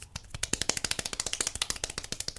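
Rapid hand clapping in a steady, fast rhythm, roughly twenty sharp, crisp claps in a little over two seconds, fairly loud and with no voices over it.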